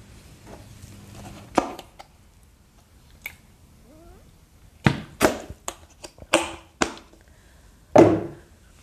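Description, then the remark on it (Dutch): A fancy bottle being opened: scattered sharp clicks and cracks, a quick cluster of snapping noises, then one fuller final pop-like burst, with quiet pauses and a faint squeak between. “Zo, dat was even een ehm, fancy fles die ik open moest maken.”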